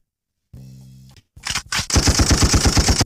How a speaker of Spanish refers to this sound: Vamos calando los efectos. A ver qué hay. Hay balazos acá en vistas de la cartera señores.